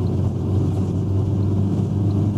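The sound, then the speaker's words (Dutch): A chase car drives steadily behind a NATO drone on the drone's first flight, its engine and road noise making a continuous low, loud rumble with no pauses and no voices. “Nou, je hoort dus een auto, dat is de chase car, die rijdt er achteraan.”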